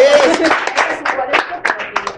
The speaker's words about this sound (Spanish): Nuevamente un aplauso para ustedes. Porque hoy tenemos público, el público que, que, que aplauda, que se oiga